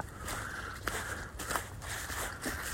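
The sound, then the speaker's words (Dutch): Footsteps crunch steadily along a path at a walking pace as people walk toward a barrier gate, with a few sharper clicks standing out over a low outdoor rumble. “Zo, nou, dan lopen we richting een slagboom.”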